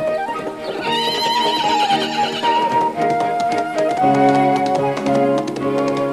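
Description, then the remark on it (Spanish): A horse whinnies loudly, a high, wavering call that falls away, followed by a steady run of sharp hoof-like taps. No one speaks. “¡Qué caballo tan agradable!”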